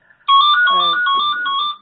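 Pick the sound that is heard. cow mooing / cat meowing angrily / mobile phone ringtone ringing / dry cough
mobile phone ringtone ringing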